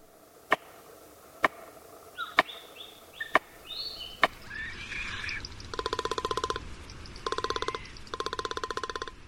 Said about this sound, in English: A tree banged with a stick held in a beak. Palm cockatoo.